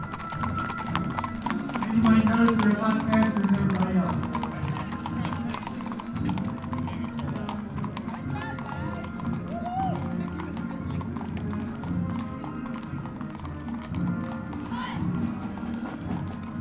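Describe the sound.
Horse hooves clip-clop past in a steady, continuous rhythm, several horses moving at a walk in a parade, ridden by honor guards carrying the flag of the United States of America, with a dense background murmur of voices and crowd noise throughout.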